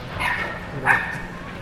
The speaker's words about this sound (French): Il y a un petit chien.